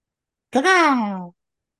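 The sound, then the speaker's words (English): A single drawn-out, nasal "caaw" from a human voice imitating a crow's call, fairly loud, with its pitch rising briefly and then sliding down before it stops. “Can you um, make that crow sound again?”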